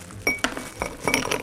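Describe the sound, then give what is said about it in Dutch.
Ice cubes drop into a glass with a handful of bright, ringing clinks, a couple of separate knocks followed by a quicker rattling cluster, fairly loud with no talking. “En die maken een heel bevredigend luid als de ijsblokjes naar beneden ploppen.”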